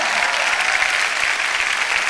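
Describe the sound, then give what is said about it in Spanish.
An audience applauding steadily, a dense wash of many hands clapping at an even, fairly loud level throughout with no voices standing out. “Ahora sí, dense ese aplauso.”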